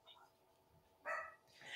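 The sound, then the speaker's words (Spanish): The speaker's own dogs bark a couple of times in quick succession, sharp bursts, with a faint murmur of voices underneath. “mis perros están ladrando, perdón chicos”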